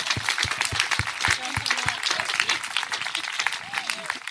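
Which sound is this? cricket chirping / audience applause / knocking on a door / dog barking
audience applause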